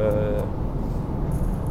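A steady, loud low rumble of road and engine noise fills the inside of a car driving on a motorway, with a faint hiss of wind above it and a brief tonal hum at the start.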